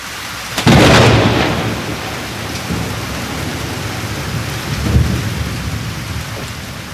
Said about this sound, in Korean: 깨어나 보니까 너무 무서웠어요. 지옥처럼 캄캄한데 그렇게 무서운 비는 처음이었어요.